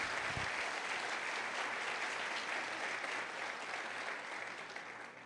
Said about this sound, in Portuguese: Você pode celebrar ao Senhor mais uma vez, aplaudindo a Ele. Uau!